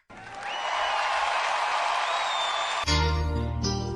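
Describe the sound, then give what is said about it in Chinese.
A burst of audience cheering and applause welcoming the first song king of the Keke livestream room to perform rises quickly and holds steady and loud for a few seconds, then gives way abruptly to music with deep bass notes. “各位同志，我们用欢呼声有请可可直播间第一届歌王，一起来听他的表演吧。”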